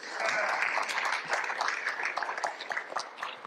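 Audience applause for a man invited on stage: a dense, steady wash of many hands clapping for a few seconds, with a loose crackling texture and individual claps popping through, tapering slightly toward the end.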